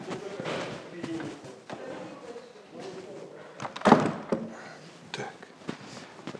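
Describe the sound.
A door is pushed shut with a single solid thud partway through, surrounded by shuffling and handling noises and a faint murmur of voices.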